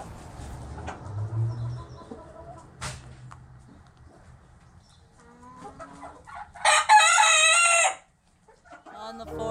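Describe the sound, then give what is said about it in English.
A French hen calls out in a loud burst near the end, a harsh crowing squawk that stops abruptly, following softer clucks and rustling farmyard noises. “So, Merry Christmas and tweet of the season French hen.”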